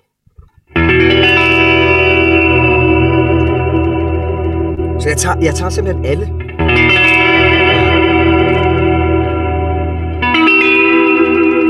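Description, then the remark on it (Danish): A guitar played through heavy effects rings out in loud, sustained, bright, twangy chords, with a brief burst of fresh strumming midway and again near the end, while a man speaks briefly. “Eller det er alle toner, du får ja. med på strengen, eller på gitaren.”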